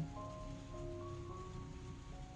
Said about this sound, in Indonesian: rintik hujan.